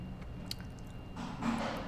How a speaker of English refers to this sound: But yeah, it is sweet and spicy. Yeah. Um, I don't know. If you like eating like a lot of jerky, you're gonna go through this whole bag. These are really small.